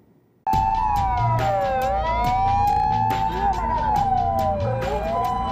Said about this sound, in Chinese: 鸣笛声四起，救护车像这样载着确诊病患，近日不断在日本街头徘徊，每天至少四百起。